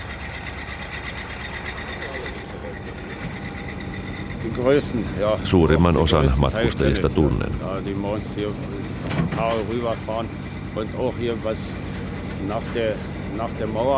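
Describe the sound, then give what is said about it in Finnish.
An old six-horsepower ferry engine from 1952, a copy of a Deutsch engine that burns half a litre of fuel oil an hour, chugs steadily, a low rhythmic drone that runs the whole time while a man talks over it. “Tämä kone on vuodelta 1952. Se on Deutschin moottorin kopio, kuusi hevosvoimainen kone, joka kuluttaa tunnissa puoli litraa polttoöljyä.”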